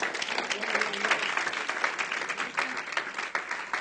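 An audience applauds the Holy Spirit during a sermon, many hands clapping at once in a dense, sustained burst that stays fairly loud throughout, with a faint murmur of voices mixed in.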